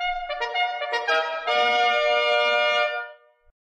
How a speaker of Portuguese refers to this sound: A corneta cantou.